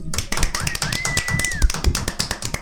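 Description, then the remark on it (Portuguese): A round of applause: dense, steady clapping throughout, with a thin whistle-like tone rising and holding briefly in the middle before fading. “Gostaria de pedir uma salva de palmas, porque essa porra saiu depois de um ano.”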